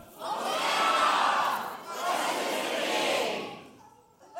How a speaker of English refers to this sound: Now, pay attention because whatever side I point to is when you yell your thing and wave your palm branch, and I might mix it up, okay? So put on your thinking caps. Ready? As loud as you can. Here we go. Group number one.